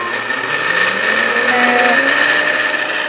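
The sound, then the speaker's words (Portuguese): A blender whirs steadily and loudly for a few seconds, its motor drone thick and grinding as it churns chicken stroganoff together with rice, with no one talking. “Liquidificador, põe com arroz e tudo.”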